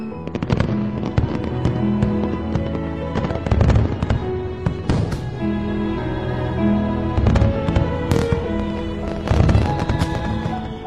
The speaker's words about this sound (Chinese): 烟花把天空都照亮了。